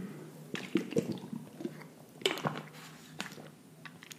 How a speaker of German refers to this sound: Ein kleines Wässerchen hinterher zum, zum Runterspülen.